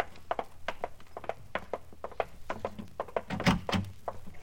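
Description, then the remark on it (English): A front door being opened: a run of soft, steady taps like footsteps crossing a room, then a heavier wooden thunk as the door swings open, with no talking. “Now listen, you got to answer that front door.”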